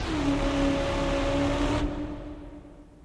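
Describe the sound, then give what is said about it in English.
A voice imitates a horn with one long, steady honk lasting nearly two seconds over a hissy background that cuts off abruptly, leaving a fading tail. “That's supposed to be a horn.”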